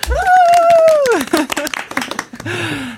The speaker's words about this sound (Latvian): es tikko aplaudēju.